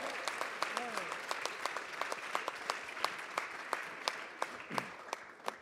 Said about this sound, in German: Give the Lord a praise. Gib Gott einen Applaus.